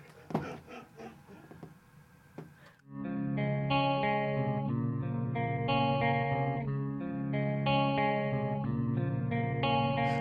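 A few scattered plucked notes and tapping open the song intro, then full, sustained chords ring out steadily with a shimmering, chorus-like effected tone, played alone without any singing.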